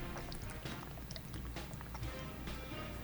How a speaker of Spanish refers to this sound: Perdón, estaba tomando agua